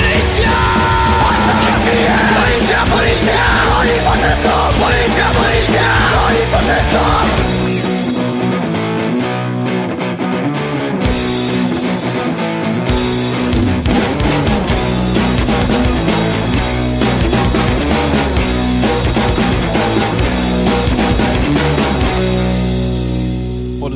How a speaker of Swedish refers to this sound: Jävligt kul att det låter som han sjunger när han springer från snuten. Ja, eller hur? Eh. Andan i halsen så.